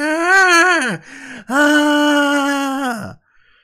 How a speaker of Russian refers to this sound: А это рыси. Рыси издают такой звук. Они, когда чувствуют какую-то опасность и хотят его, ну, эту опасность пугнуть, они ночные животные, да, то есть если кто-то втер, вторгся на их территорию, они издают вот такой звук